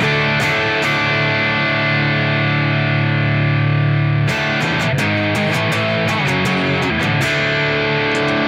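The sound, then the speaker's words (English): Loud, gritty overdriven electric guitar played through an effects pedal running at nine volts from a power supply's nine-volt socket: a long ringing chord for several seconds, then a run of sharp, choppy strummed chords. No voices. “I'm gonna pop it mm-hmm. over to the nine volt socket.”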